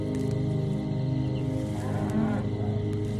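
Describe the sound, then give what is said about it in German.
A buffalo with large sickle-shaped horns lows with a long, deep, drawn-out moo that carries on steadily for several seconds, fairly loud, with no one speaking, while buffalo graze together in a field under bright sun. “Ruhig und entspannt grasen sie unter der strahlenden Sonne. Die großen sichelförmigen Hörner und der kräftige Körper strahlen Stärke und Willenskraft aus.”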